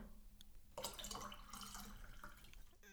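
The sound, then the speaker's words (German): A bottle of water is opened and the water pours out in a steady, splashing stream for about two seconds, fairly loud, then stops. “hm, es, es, es klingt nicht nach Bubbly, es, es ist Wasser, äh, aber es ist, äh, es ist e, ein, ein Bestandteil von Bubbly.”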